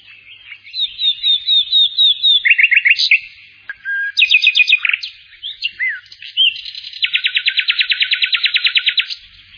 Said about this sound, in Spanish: Y a continuación el maestro le preguntó al alumno, Dime, al guardar silencio, ¿qué has oído? Y el discípulo le dijo, Maestro, el canto de un ruiseñor.